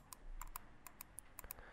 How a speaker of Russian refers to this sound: Вот, моя мышка кликает, это клик.